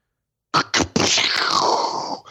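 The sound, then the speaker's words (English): A cartoonish vomiting sound effect played from a soundboard: two quick gagging heaves, then a long, loud, gurgling retch that slides downward in pitch before cutting off. No talking. “Oh, wait, I, where's the uh, barf sound? Uh, right there's here. One, there's one called barf.”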